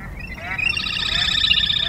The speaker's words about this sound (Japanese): カイツブリが鳴くと遠くでも同じように鳴いているカイツブリがいます鳴くことで縄張りを宣言し合っていると考えられます